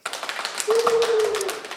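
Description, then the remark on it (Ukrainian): A few people off camera clap in quick, uneven bursts that overlap, applauding a guest. There's a faint steady tone partway through, and nobody is talking. “Якщо є люди за кадром, які можуть поаплодувати, то можете поаплодувати.”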